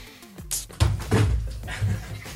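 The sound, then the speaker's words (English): A water jug gets knocked over: a sudden heavy thunk followed by a couple of clattering knocks and rattles over about two seconds, with no talking. “knocking water jugs over”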